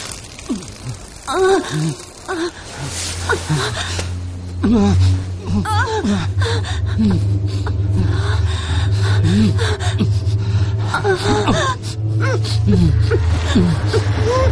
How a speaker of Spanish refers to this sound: Lore sale al jardín al escuchar unos gemidos.